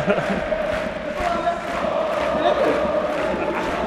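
A large stadium crowd cheers steadily, a dense wash of many voices roaring together at fairly even loudness throughout, with occasional shouts rising above the din.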